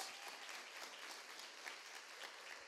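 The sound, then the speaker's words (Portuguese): A church audience applauds steadily to praise God for a couple married 61 years, a dense, even patter of many hands clapping at once, sustained through the whole moment without any voices rising above it. “Nós estamos aplaudindo porque isso já não é mais tanto realidade em nosso meio.”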